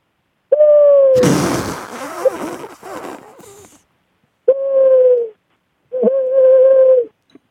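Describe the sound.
A person imitates an owl hooting: three drawn-out, steady hoots, close and loud, with a burst of noisy breathy rustling between the first and second.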